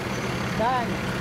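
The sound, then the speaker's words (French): A truck rumbles steadily through a traffic-light intersection with low engine and road noise, a brief high-pitched tone rising and falling partway through over the traffic din. “Le camion!”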